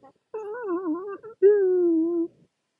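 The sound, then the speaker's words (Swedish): A person's voice imitates a big dog howling: a wavering, whimpery howl followed by a longer, steadier drawn-out howl, fairly loud, with no other talking. “då kom det fram en stor hund till Chewbacca. Och vet du vad den sa då?”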